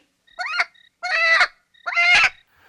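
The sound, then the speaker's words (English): A chicken on a bus lets out three loud, squawking clucks in a row, each a short harsh burst with brief pauses between, with no voices around. “Everybody's life was in danger because of that damn chicken.”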